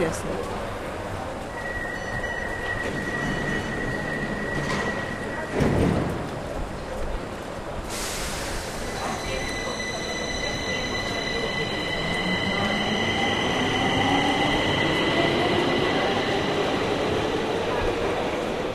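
A subway train in the Swedish capital rumbles loudly, its doors sliding, with a sharp clunk partway through and sustained high metallic squeals and whines as it runs along the track.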